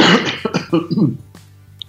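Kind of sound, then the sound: vocal imitation, voice imitating a cough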